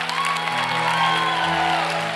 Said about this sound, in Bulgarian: О, Боже мой, ако ръкопляскаш, ръкопляскай, айде!